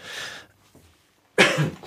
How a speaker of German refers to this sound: Du darfst ruhig husten.